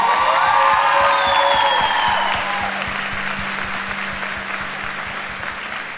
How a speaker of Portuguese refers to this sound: Gente, uma salva de palmas para elas.